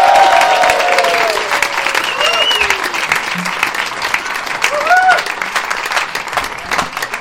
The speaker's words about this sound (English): Ladies and gentlemen, it's a new year. The political party is back. Would you please put your hands together, make an enthusiastic noise for Matt Forde?